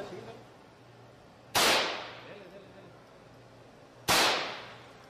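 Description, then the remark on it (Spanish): Two sharp rifle shots fired at a pane of glass, each a loud crack with a brief decaying tail, spaced a couple of seconds apart over a low, quiet background hum. “Aquí está, ese es un rifle.”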